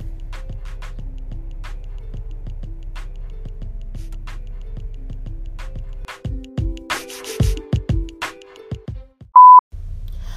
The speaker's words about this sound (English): All right, so this is the part of my segment where if you hear that beep, just stop. Stop listening if you have an issue with profanity, uh, uh, nutty, crazy language, or if you are under the age of 18, please stop, exit, listening, the app, whatever